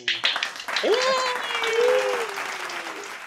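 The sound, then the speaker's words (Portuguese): A burst of steady clapping applause, added in editing, fills the short moment, with a voice letting out a rising, drawn-out cheer over the crowd noise before it gradually thins out. “Bota aplausos na edição aí, por favor.”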